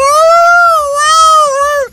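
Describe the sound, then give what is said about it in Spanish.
A person imitates a dog's howl with a single long, loud, high-pitched wail that wavers slightly in pitch for about two seconds before dropping off abruptly. “se escuchaban aullidos de un perro”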